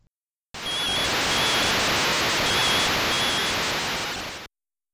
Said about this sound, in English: there is a cool sound effect in this game though, where they do a crowd cheering sound